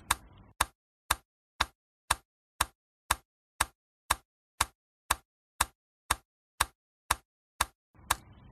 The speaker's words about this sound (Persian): وقتی که رادیو برنامه برای پخش کردن نداشت یه مترونوم رو جلوی میکروفون میذاشتن و صدای اون رو پخش میکردن صدای تیک تیک آروم به معنای این بود که همه چیز آرومه و تیک تیک تند به معنای این بود که پناه بگیرید این صدا به قلب تپنده لنینگراد مشهور شد